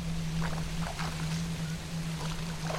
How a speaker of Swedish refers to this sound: Vi puttade ner ekan i vattnet och jag började ro så snabbt jag kunde mot klotet.